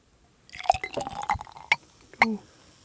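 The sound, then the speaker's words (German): A hybrid beer made with wine grapes glugs and splashes into a glass at the microphone for about a second, bubbling with bright, irregular trickles, followed by two sharp drips or splashes as the pour ends. No voices. “Mach's mal am Mikro, dann hört man es auch.”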